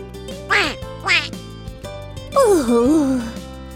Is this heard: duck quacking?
yes